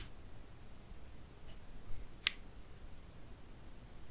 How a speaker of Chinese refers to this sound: 这是我折手指的声音。